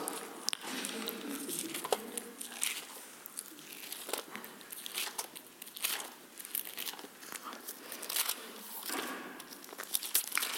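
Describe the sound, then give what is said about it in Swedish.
Thin Bible pages rustle and crinkle as someone leafs through to Matthew 4, verses 18-20, with a steady run of soft flutters and small crisp flicks lasting several seconds. No one speaks. “Och jag skulle vilja sammanfatta den här predikan med ett bibelord Matteus 4, vers 18-20. Vi slår upp den.”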